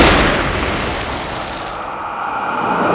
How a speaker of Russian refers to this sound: его палец на курке. Он резко развернулся, выстрел.